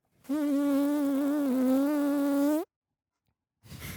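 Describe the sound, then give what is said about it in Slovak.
A voice imitates a buzzing fly with one loud, steady, nasal drone lasting about two seconds and wavering slightly in pitch. It stops abruptly, and after a short silence another sound begins. “Alebo potom, že ultra absurdné zabíjania muchy, že?”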